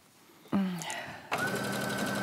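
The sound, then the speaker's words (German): A sewing machine starts up with a quick whir, pauses briefly, then runs steadily, a dense rapid mechanical hum with a faint high whine as it stitches through fabric folded around the edge, using a binding presser foot. “Wenn er den Stoff so um die Kante klappst, hier, Schreckbandfüßchen mhm. mit Falten, Nähen, ja.”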